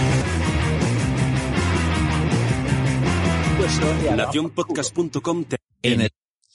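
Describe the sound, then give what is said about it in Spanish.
Loud, steady intro music with a thick low beat and full harmonies plays while people talk over it, then the music drops out and a voice continues alone in short bursts. “Eso que que te puse la intro mientras hablabas.”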